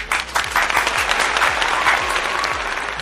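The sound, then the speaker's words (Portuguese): A round of applause from a group, with dense, steady clapping that holds at an even loudness for a few seconds without any voices over it. “Uma salva de palmas pro Etcast.”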